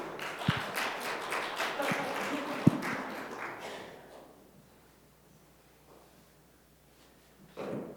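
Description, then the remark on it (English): An audience in a church sanctuary bursts into a round of applause to welcome a character, Joseph, for a Christmas presentation, a dense patter of many clapping hands that dies away after a few seconds, leaving near silence before a short noise at the end. “So, why don't we welcome Joseph into uh, the sanctuary at this time and uh, give him a round of applause?”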